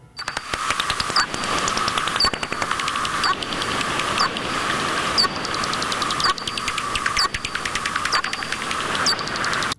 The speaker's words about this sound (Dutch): Dat, eh, dat is het geluid van een vleermuis, Flip. Eh, vleermuizen maken geluiden die wij niet kunnen horen. En wat je hier gehoord hebt, zijn eh, geluiden die, die opgenomen zijn met een, een vleermuisdetector.